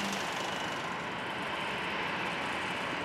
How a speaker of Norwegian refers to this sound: Et jetfly på vei mot ankomst etter landing. På flyturen til Oslo lufthavn er enorme mengder drivstoff forbrent, drivstoff som er tilvirket av råolje, og som forurenser.